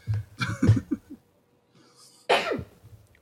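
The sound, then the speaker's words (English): A single loud, sharp sneeze bursts out after a few short throaty, breathy sounds and a brief pause, ending in a quick trailing exhale. “Bless you.”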